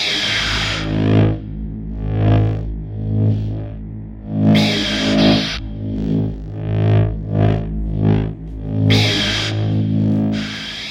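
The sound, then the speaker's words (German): A steady, buzzing lightsaber hum drones throughout, rising and falling in swooshing swells, with a few loud crackling bursts like clashes near the start, middle and end. No one speaks. “ein wichtiger Sound aus diesen Filmen ist das Lichtschwert, das im Kampf verwendet wird.”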